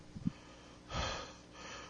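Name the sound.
forceful deep breathing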